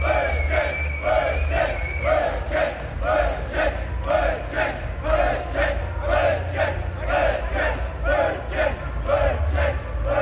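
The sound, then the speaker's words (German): A large festival crowd chants "Brötchen" in unison, a rhythmic, repeated shout roughly every second, over a steady roar of cheering and loud low rumble throughout. “Diese Dynamik auf Festivals.”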